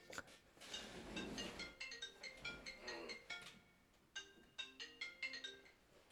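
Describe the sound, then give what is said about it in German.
A mobile phone ringtone, an incoming call from the German film distributor, plays a repeating electronic melody of bright, chiming tones in short rhythmic bursts, clear with no talking over it. “jetzt klingelt hier das Handy.”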